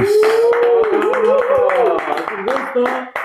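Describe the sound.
Steady applause welcoming a friend as a guest, with many quick claps running through the whole moment, while a voice holds a long, wavering cheer over the clapping.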